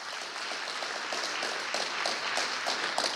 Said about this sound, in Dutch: Hey, zullen we een fantastisch applaus geven aan de band? Dat hebben jullie het goed gedaan.